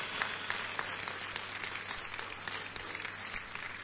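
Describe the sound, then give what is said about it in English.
A crowd claps for Jesus, many hands at once forming a dense, continuous patter of applause at moderate loudness, with no voices standing out above it. “So clap for Jesus for”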